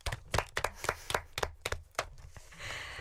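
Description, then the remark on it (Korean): A short burst of hand clapping after a performer introduces herself, roughly a dozen sharp claps at an uneven, quick pace, fairly loud, tapering into a soft hiss at the end. “박수 한번 쳐주세요.”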